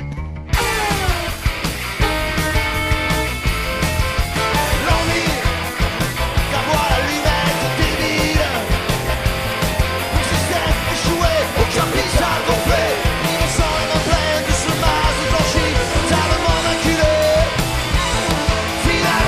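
A loud, dense live rock performance with a full band playing continuously and steadily, driving drums and guitars filling the mix, and some shouted vocals on top.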